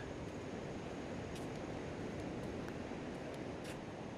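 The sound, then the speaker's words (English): A steady, broad wash of surf rolls continuously at a beach, a dense hiss of breaking waves with no distinct individual crashes and no voices. “Okay, now I'm going to head to the water.”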